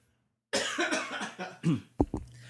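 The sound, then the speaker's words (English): A loud fit of coughing from a person overcoming a cold: a rough, raspy cough that breaks into several quick hacking bursts, ending with two sharper coughs, with no talking. “I'm going to cough too.”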